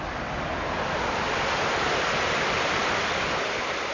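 Water rushes steadily over a mill dam built more than 200 years ago at Sasaki's world headquarters in Watertown, Massachusetts, in a continuous, dense, fairly loud roar, with no pauses or voices for the whole stretch.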